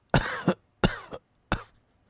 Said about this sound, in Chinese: 他咳嗽起来。每咳嗽一下，身体就抽动一回。